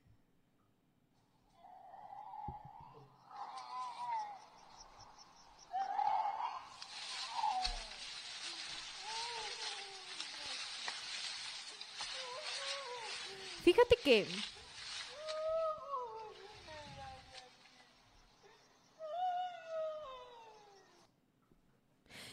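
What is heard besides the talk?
cat yowling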